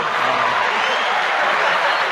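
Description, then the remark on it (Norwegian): An applause sound effect: a steady burst of many hands clapping densely together at an even, fairly loud level for a couple of seconds, with no voices standing out. “Og da var jo det sånn Applaus”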